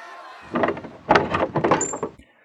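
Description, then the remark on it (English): A door is opened as Charles answers it, with a couple of rattling, scraping bursts followed by a brief high squeal from the hinges, then quiet. “Their hearts pound as Charles answers the door.”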